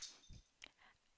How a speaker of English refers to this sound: If, if you can hear any noises in the background, I'm terribly sorry. My giant dog is joining us for this conversation.